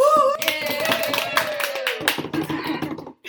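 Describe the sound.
A few people clap in quick, uneven bursts for about three seconds while a voice hums or cheers a sustained rising tone over it, then the clapping thins out and stops.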